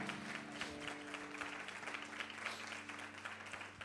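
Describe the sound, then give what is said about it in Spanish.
A church audience applauds the Lord steadily throughout, a dense, continuous wash of many hands clapping, with sustained low keyboard tones held underneath. “Alguien que tenga un testimonio, que le dé un aplauso al Señor.”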